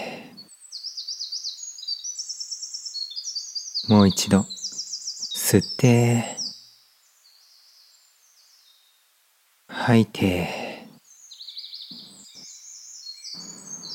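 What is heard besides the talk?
small birds chirping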